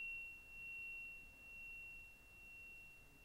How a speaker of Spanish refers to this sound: A pesar de que el golpe de las campanas lo hice hace unos segundos, seguimos oyendo la vibración después de haber hecho el golpe, miren.